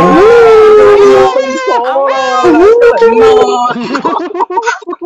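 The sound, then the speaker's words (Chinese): Several people on a livestream loudly wail and howl together, imitating animals, one of them a dog, in overlapping, sustained cries with rising and falling pitch, continuous for about four seconds before breaking into scattered, fading yelps. “我我我感觉不是，我感觉我感觉直播间鬼哭狼嚎， 听到没有？”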